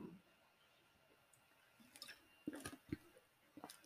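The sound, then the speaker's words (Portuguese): Someone takes a quiet sip of water, a few soft wet slurping clicks and a swallow over faint background hiss, with no talking. “Deixa eu beber uma aguinha aqui, porque eu fico na ansiedade, vou falando, vou falando, vou falando e vai ver.”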